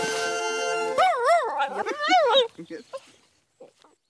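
Tessu, a long-haired rabbit dachshund from Pernaja, howls: a sustained note, then a loud, wavering howl that swoops up and down in pitch, breaking into short whines and fading yelps.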